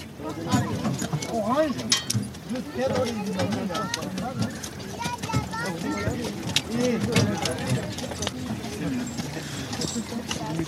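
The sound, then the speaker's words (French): Hooves of two large brown draft horses with big hooves clop steadily as they pull a horse-drawn carriage in the Camargue, with faint harness jingles, heard under nearly continuous conversation from several people. “on a deux grands chevaux de trait qui nous tirent.”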